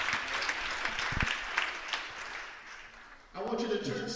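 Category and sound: crowd, audience applauding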